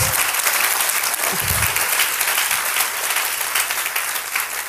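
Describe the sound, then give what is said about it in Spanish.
A crowd applauds the Father loudly and steadily, a dense wash of many hands clapping that holds at full strength for the whole stretch with no voices standing out. “Si le va a aplaudir, apláudale bien fuerte al Padre.”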